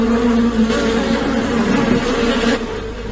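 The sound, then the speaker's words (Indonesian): A steady, dense buzzing of many honeybees swarming around their hive in an apple tree, continuous with a low droning hum throughout, no voices present. “Eh, itu itu sarang lebah madu. Bagaimana kita bisa menebang pohon apel ini jika ada lebahnya?”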